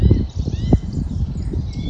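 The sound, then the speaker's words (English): Faint, high birdsong twitters continuously in a small local wood, partly buried under a low, rumbling wind-like background, with a brief thump near the middle. “So here I am in our little local woods. I've been watching yellowhammers and skylarks and woodpeckers and nuthatches and song thrushes, chiff chaffs”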